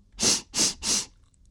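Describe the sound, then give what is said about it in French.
Three forceful, breathy sniffs of a bull sniffing around the surroundings after smelling two children, in quick, even succession, each a loud hissing rush of air that fades to silence, with no talking. “Il renifla les enfants pour comprendre leur odeur et se mit à renifler aux alentours.”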